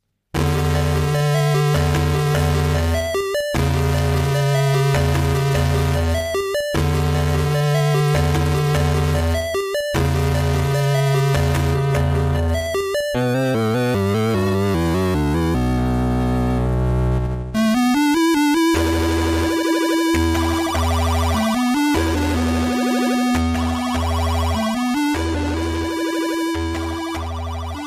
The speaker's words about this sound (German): Also. Wie, wie krass der Atari ST eher wie ein C64 klingt, mit dem ganzen Geblubber da drin.